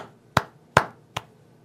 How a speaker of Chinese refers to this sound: 这边拉一波上来，回档再上去，我给你鼓鼓掌。